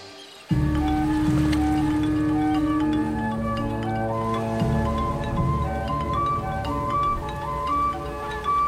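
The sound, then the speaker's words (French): A boat crosses the sea to Bagamayo on the African coast, opposite Zanzibar: a steady droning hum layered with continuous washing and sloshing water. It starts abruptly after a moment of silence and stays loud throughout, with no voices. “Stanley fait ses bagages, il prend le bateau et hop Il traverse la mer.”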